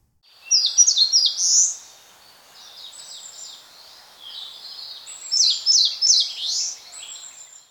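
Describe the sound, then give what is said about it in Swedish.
A songbird sings alone: a quick, high twittering trill, then softer, buzzier notes, then a second bright run of rapid chirps fading out. No voices. “Och, och, och, det, sjung, det är liksom en liten trudelutt följt av en lite strävare ton.”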